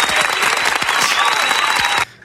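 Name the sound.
applause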